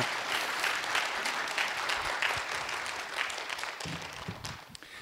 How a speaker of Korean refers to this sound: 목사님 나오실 때 큰 박수로 환영하겠습니다.